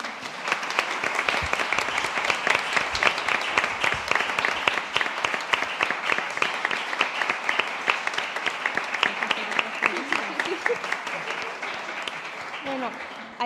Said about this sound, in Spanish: entonces los aplausos al final.